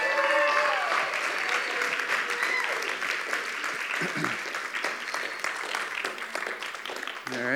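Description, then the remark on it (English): An audience applauds steadily as the speaker's mother is called up on stage, a dense wash of clapping that holds for several seconds with a few voices and cheers faintly mixed in. “Give my mom another round of applause if you wouldn't mind.”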